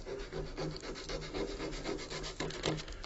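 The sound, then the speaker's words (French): Steady hand sanding of a wooden pipe with sandpaper, rasping back and forth in quick repeated strokes, moderately loud, with no voices, finishing work first done with tools. “Alors après, si on, on veut bien finir le travail qu'on a fait à l'outil, c'est au papier de verre.”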